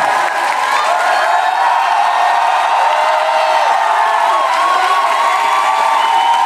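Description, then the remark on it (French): A large audience at La Cigale shouts loudly all at once on a count, telling the team of the show Pardon le cinéma that they are well, a dense, sustained roar of many voices with some high cheers and whoops that holds steady for over six seconds. “Si vous allez bien, Merci de le signaler à l'équipe de l'émission stressée derrière le rideau en criant très fort”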